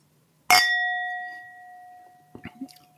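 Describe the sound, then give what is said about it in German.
A single bright clink of wine glasses, as in a toast, leaves a clear ringing tone that slowly fades over about two seconds, followed by a few soft, faint sounds. “Prost. Ein virtuelles Anstoßen.”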